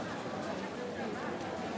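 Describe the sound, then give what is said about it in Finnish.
Steady, indistinct crowd chatter at a Sunday flea market in an echoey parking garage, many voices overlapping into a continuous murmur with no single speaker standing out, at a moderate, even level throughout. “Parkkihallissa on sunnuntaisin kirpputori.”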